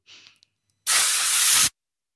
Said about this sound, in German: Spray. Mhm. Spraydose. G Graffiti. Oder Duftspray.